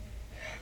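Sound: sneeze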